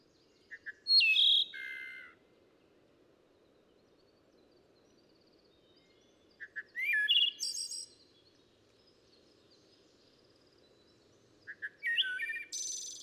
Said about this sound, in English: The song of the wood thrush is more golden and leisurely. Its tone comes near to that of some rare stringed instrument.